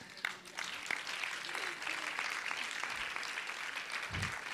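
An audience claps steadily for several seconds as a round of applause to God, a dense, bright wash of many hands with scattered sharper claps, fairly constant in loudness throughout.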